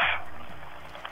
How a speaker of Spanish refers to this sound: Realmente un aplauso ahí para Joseph que lo ponga